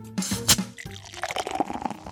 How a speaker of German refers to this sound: Also- Bierflasche aufmachen, einschenken.